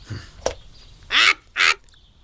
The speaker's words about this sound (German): Halt den Schnabel, Blackie. Ah, dieser Vogel.